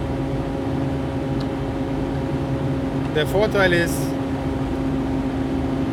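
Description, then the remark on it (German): Steady, droning car interior noise with a low engine hum and road rumble fills the whole clip, loud from the left, as the car is driven in wet conditions at 1 degree Celsius to a physiotherapy appointment, while a person speaks briefly over it midway. “Jetzt fahre ich Flux bei 1 Grad, 1 Grad plus und Nässe, was hoffentlich bei Wind nicht irgendwie zu Glätte führt, zu meinem Physiotherapietermin und höre mein Auto wieder laut von links.”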